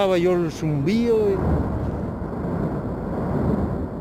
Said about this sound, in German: Aus dem Brummen wurde am Sonntagnachmittag ein großer Donner und aus dem Erdinneren begann Lava herauszuquellen. Es flogen Asche und flüssige Steine durch die Luft.